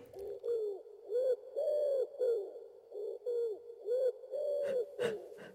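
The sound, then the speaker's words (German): A wood pigeon cooing, a steady run of soft, hollow, rhythmic coos, followed near the end by a few short breathy puffs of a bear snorting, played from sound effect files. “Ringelt der Arbeit und wieder das Schnaufen von Bären.”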